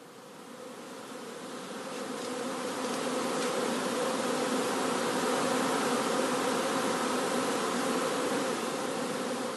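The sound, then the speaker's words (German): A dense, steady hum of many honeybees buzzing around their hives, about twelve of which still have bees flying in and out, swelling slightly in the first seconds and then holding a constant droning level with no voices. “zwölf, die jetzt noch raus und reingehen.”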